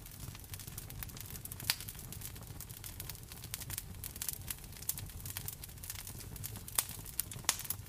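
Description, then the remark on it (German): A wood fire crackles steadily in a fireplace, with irregular sharp pops and snaps of the burning wood over a soft, continuous low rumble, moderately quiet, with no voices. “Du hörst in der Einschlafmeditation Feuerknistern von einem Kamin.”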